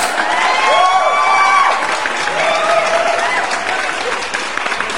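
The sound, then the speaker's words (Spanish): Dense, steady applause from an audience mixed with cheering and whooping voices, loud and sustained for the whole five seconds with no clear individual claps standing out. “Aplausos.”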